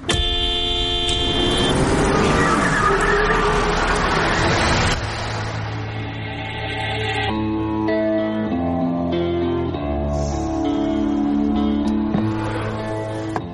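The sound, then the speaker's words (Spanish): A car horn blares in a long, loud sustained honk over engine and traffic noise in a scene from the film Salvaje starring Russell Crowe, followed by a stretch of tonal, music-like sound with the road noise still underneath. “si pitas a quien no debes, puede que pase esto, que Russell Crowe se convierta casi en Terminator, o en Salvaje, que es el título de la peli.”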